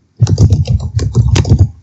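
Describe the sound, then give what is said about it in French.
Rapid typing on a computer keyboard, a dense run of quick clicking keystrokes lasting under two seconds, clear, with no voices. “on t'entend taper sur le clavier ah pardon”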